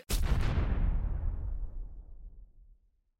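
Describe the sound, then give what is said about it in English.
A single deep, muffled explosion outside booms with a sharp onset, then a long low rumble rolls on and fades away over about three seconds, heard alone with no voices. “There was the muffled thud of an explosion from outside, and no further sound.”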